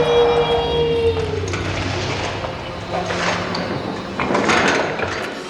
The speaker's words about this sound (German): ich mache die Tür zu.